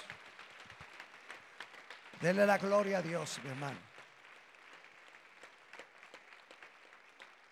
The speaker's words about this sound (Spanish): Si quiere darle un fuerte aplauso al Señor, hágalo. Dele la gloria a Dios.